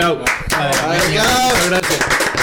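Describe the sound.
Applause from a small crowd at the La Turca studio in San Andrés de Giles, steady, with voices cheering and calling out over the clapping throughout.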